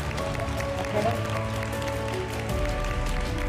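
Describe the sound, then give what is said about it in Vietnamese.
An audience at an offline event applauds steadily for a few seconds, a dense wash of clapping that stays at an even level, with background music playing underneath. “và các anh chị hãy cho một tràng pháo tay thật lớn”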